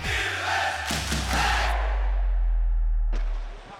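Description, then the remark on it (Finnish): A large arena crowd at Nokia Arena roars and claps during an Ilves Liiga game, thanking Risto Duffa for his career: a dense wash of cheering and applause with a few bursts on top, swelling and then thinning out before a short final surge. “7.39 ensimmäistä erää pelaamatta, Ilves Sport 0-2 lukemissa ja aplodit Nokia Arenalla johtuu siitä, että Risto Duffaa kiitetään hänen urastaan hieno ura, ura ollut kyllä Ristolla ja pitkä ura.”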